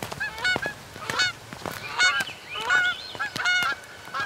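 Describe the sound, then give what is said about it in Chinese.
Geese honk repeatedly in loud, nasal, overlapping calls, a rough flurry of brassy honks with short pauses, and no one speaks. “大鹅，大鹅，等等我，我快擦完了。”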